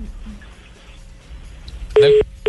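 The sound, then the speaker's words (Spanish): After a quiet, murmuring stretch, a dropped-call telephone tone sounds as the phone line to a caller in Miami cuts off: two loud, steady electronic beeps at a single mid pitch, the first about a quarter second long, the second starting just after. “No, se nos cayó la comunicación.”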